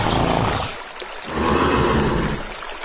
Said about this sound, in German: Wollen wir zum Fluss? Ja, dort können sich unsere Pferde abkühlen. Ja, okay. Ja, da vorne höre ich es plätschern.